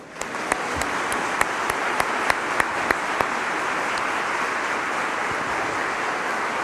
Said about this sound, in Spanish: Entonces realmente no le damos nada, pero sí le damos nuestros aplausos.